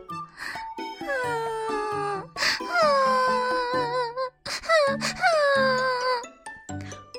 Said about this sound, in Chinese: 乔治经过一个宿营地，一只狐狸站在帐篷边，正呜呜的哭着。